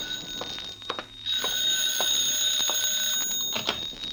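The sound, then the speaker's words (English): A telephone bell rings on and on in an office, a shrill, steady metallic jangle with slight rhythmic pulsing, loud, with no one speaking over it. “Just as I got to the tambourine, the phone opened up in my office.”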